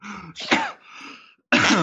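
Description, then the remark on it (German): Several harsh, raspy coughs, coming in two bursts with a short pause between them and no talking. “Wie gesagt, Jetzt muss ich direkt husten.”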